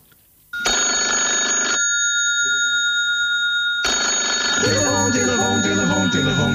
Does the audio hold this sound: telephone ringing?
yes